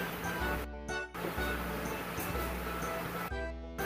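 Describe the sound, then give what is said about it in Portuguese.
A boat at sea: a steady engine drone with low humming tones beneath a continuous rush of water and wind, fairly loud and unbroken, with no one speaking. “Ah, já é mais que eu, é a primeira vez que eu tô saindo de barco.”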